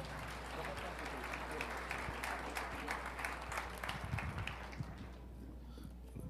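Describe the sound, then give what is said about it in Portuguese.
A church audience applauds the Lord Jesus in a dense, steady burst of many hands clapping, with some voices mixed in, before the clapping thins out and fades over the last second. “E você aplaude ao Senhor Jesus.”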